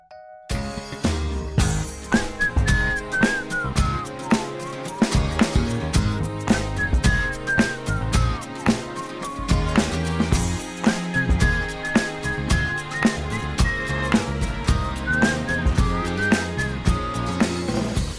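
An upbeat pop song plays continuously on a radio show with steady drums, bass and bright melodic lines, a whistle-like lead weaving through the mix at a full, even volume.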